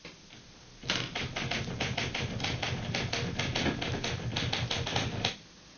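Rapid typewriter typing with sharp, irregular key strikes and mechanical clatter as the last file is typed out at a doctor's practice after the last patient, running steadily for several seconds before stopping abruptly. No voices are heard.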